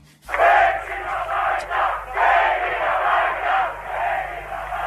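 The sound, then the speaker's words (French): A huge crowd of more than 100,000 protesters fills the city hall square and side streets in Tel Aviv, Israel, under floodlights on 28 September 1982, roaring and chanting in a continuous loud wash of voices, swelling and dipping in waves with no single voice standing out. “La place de l'hôtel de ville à Tel Aviv est noire de monde et dans les rues adjacentes, la foule continue de se presser.”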